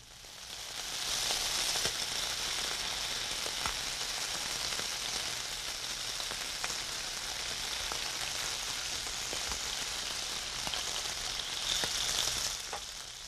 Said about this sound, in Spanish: Y cuando se dan las condiciones adecuadas, las nubes dejan caer la lluvia.